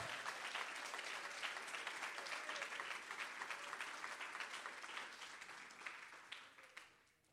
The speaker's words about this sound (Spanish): Todo el que lo crea, que le dé un aplauso al Señor.